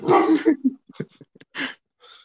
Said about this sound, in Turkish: Kedi falan mı girdi? Yok ya dışarıdan insanlar yürüyor onlara havlıyorum.